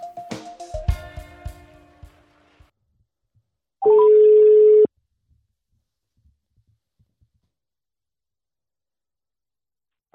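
A quick run of phone keypad tones as a phone number is dialed during a broadcast on the Danish radio station Rød Aalborg, followed by a single loud, steady ringback tone lasting about a second, then near silence with faint clicks and a brief sound at the very end.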